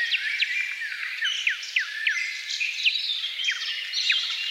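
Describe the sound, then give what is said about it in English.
A dense dawn chorus of forest birds at the break of dawn deep in a forest in the heart of Poland, echoing through a nearby cathedral: many overlapping chirps, trills and whistled calls sounding continuously at moderate loudness, with no voices present. “We take you now to a bird symphony at the break of dawn deep in a forest in the heart of Poland.”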